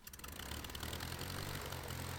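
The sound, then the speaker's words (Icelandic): A loud, steady propeller-plane engine roars throughout, a deep throbbing drone beneath a broad rushing noise, as the Civil Aviation Administration's aircraft takes off in Reykjavík. “Í Reykjavík var flugvél flugmálastjórnar að taka á loft”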